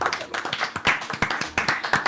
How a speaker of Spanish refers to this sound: Aplauso oh. para …